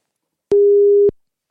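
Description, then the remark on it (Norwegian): A single steady electronic telephone ringback tone sounds once while a call is being placed, a clean mid-pitched beep lasting just over half a second, loud, with silence before and after and no voices. “Sa ikke du at vi skulle ringe den”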